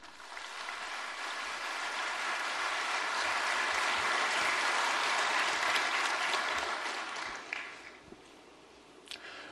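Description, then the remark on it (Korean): A church audience breaks into sustained, dense applause to welcome the pastor who is to deliver the sermon, a steady wash of many hands clapping that thins out near the end into a few scattered claps. No one speaks. “우리 사랑의 박수로 환영하겠습니다.”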